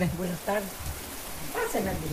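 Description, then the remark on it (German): Steady heavy rain patters down on the corrugated metal roofs of huts and houses in Guajila, a village in northern El Salvador, a dense hissing wash with voices briefly rising over it. “Dicke Regentropfen fallen auf die Wellblechdächer der Hütten und Häuser in Guajila.”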